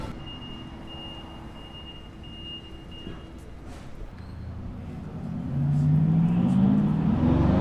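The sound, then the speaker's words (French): Roaring traffic of cars, motorbikes and tuk-tuks moving off as a traffic light turns green by the Robertson Department Store, a steady wash of engine noise that swells louder toward the end as one engine revs with a rising whine. “Le feu passa au vert et les rugissements des voitures, des motos et des tuk-tuks s'enflaient encore et encore, à tel point que Jim put voir trembler les désaventures des boutiques du Robertson Department Store.”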